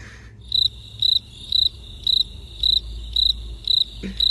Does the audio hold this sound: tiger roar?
no